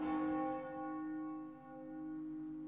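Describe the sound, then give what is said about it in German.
A church bell rings out with a rich, sustained tone, its harmonics humming and slowly decaying across a few seconds, fairly faint and heard alone without any voices. “Auch in geschlossenen Räumen achtet er auf die Kirchenglocken”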